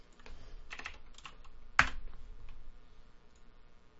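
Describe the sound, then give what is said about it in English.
Brisk typing on a computer keyboard: irregular bursts of clicking keystrokes, capped by one sharp, louder key strike near the middle before the tapping thins out. No one speaks. “Uh, now you hear me typing.”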